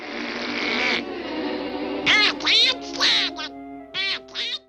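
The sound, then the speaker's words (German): A raspy voice of Disney's hot-tempered cartoon duck squawks and quacks in short, agitated bursts, sounding angry and sputtering, with a noisy opening blurt followed by four loud, choppy quacking outbursts. “we created this little duck. This is terrible tempered Mr. Duck.”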